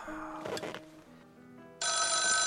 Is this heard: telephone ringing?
yes